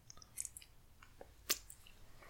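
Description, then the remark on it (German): Wet chewing and slurping of a soft, liquid-filled Haribo Vulcano gummy candy, the liquid being slurped out, with scattered sticky clicks and smacks and one sharper squishy burst midway, fairly quiet and with no talking. “Ich, ich schlürfe die aus.”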